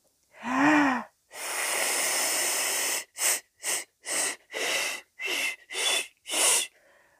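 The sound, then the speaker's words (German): Breathy, airy blowing as someone tries and fails to whistle to call a pigeon: a voiced rising 'ooh' start, one long hiss of air, then a quick series of short puffed breaths with no clear tone. “Oh, Oh, ich kann ja gar nicht pfeifen. Na gut, ich probiere es nochmal.”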